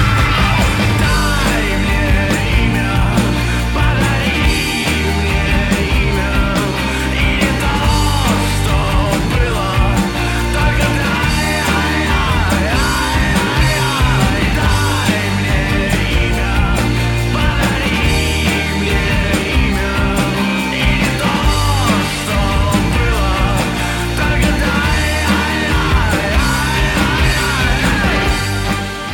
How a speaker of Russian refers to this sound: здесь надо просто поставить будет фрагмент трека из «…», да, альбом назывался